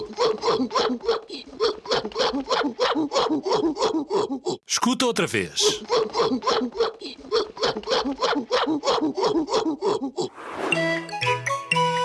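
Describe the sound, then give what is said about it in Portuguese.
A gorilla vocalizes in a rapid, rhythmic series of loud, breathy hooting grunts. A voice briefly cuts in partway, the grunting resumes, and a short chime ends it. “E a resposta correta é um gorila.”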